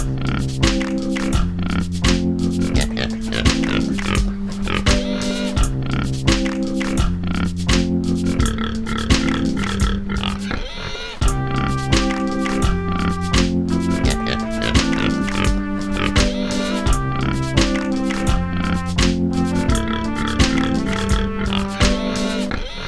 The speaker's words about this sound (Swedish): Vignett!